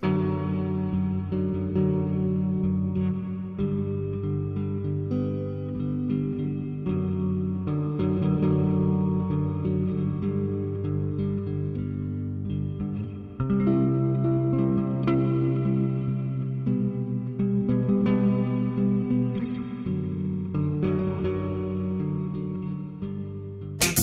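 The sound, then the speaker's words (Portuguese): A sung cover version of a song plays continuously at a steady, full volume, its dense sustained tones and layered harmonies washed in heavy echo and reverb, with no talking over it. “que é uma, uma série de versões de, de canções”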